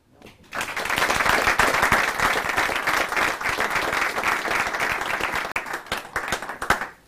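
A room full of people breaks into steady applause, dense overlapping claps rising quickly and holding for several seconds before tapering off, with no talking over it.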